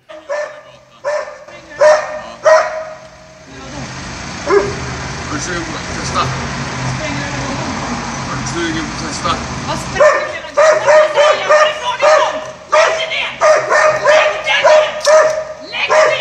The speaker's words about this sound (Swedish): Men det är ju en hund som attackerar ja. också, det är därför det är massa voffande. Och han försöker ju gå iväg längs gatan och hon följer efter och slår på den. Han säger hunden försöker bita mig.